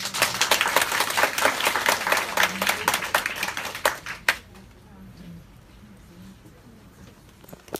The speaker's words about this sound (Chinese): 好，那我们再次热烈掌声